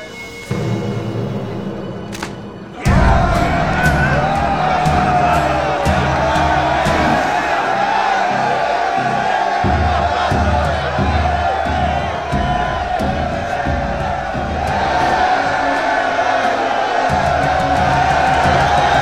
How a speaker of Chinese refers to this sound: 场下再次呼声震动啊！